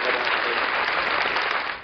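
A crowd claps steadily, a dense, even wash of many hands that holds at full strength throughout and begins to fade only at the very end.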